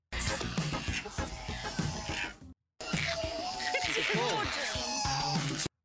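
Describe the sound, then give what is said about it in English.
A koala's guttural mating call: deep, rasping, snore-like grunts in a steady pulsing rhythm, loud, pausing briefly midway before resuming. “Cuddly critters, guttural mating calls.”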